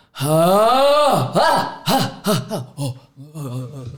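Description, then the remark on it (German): A voice imitates wild primal screams: a long, loud, rising wail followed by several shorter yelping cries and grunting bursts, strained, with no words spoken. “Auf jeden Fall saß sie immer in diesem Baum und hat so Geräusche von sich gegeben. Mhm. So, weißt du, so Urschreigeräusche, mhm.”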